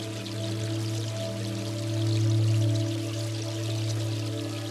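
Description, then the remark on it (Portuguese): Water pours and splashes steadily from a carved marble garden fountain with Renaissance-style statues in the centre of a garden, a continuous rush with a low steady hum beneath it and no voices. “Podemos ouvir o fluir da água na escultura talhada em mármore.”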